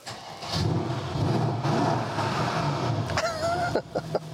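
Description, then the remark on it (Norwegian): A car engine turns over and catches, then settles into a loud, steady rumble, with a brief high-pitched whine rising near the end. No one speaks. “Skal vi starte av? Skal vi høre lyden?”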